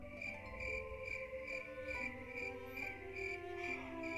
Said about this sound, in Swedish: Uh, jag klipper in syrsor här.